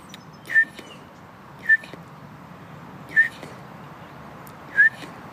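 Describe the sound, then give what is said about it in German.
A person whistles four short, soft notes, evenly spaced about a second and a half apart, imitating the piping call of a bullfinch heard in a park, over a quiet background hiss. “Und man hört hier auch so einen Ruf, den ich jetzt versuche mal nachzumachen.”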